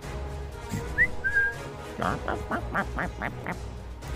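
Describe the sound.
A voice imitates a mechanical owl hoot: a short rising whistle, then a quick, evenly spaced run of about six clipped, nasal pulses, moderately loud.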